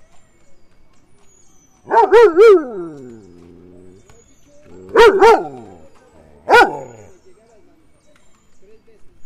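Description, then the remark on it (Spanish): Dogs bark loudly in a park in short, yelping bursts: a quick cluster of barks, a pause with faint background noise, then a few more sharp barks. “Estoy en el parque. ¿Qué tal se van los perros?”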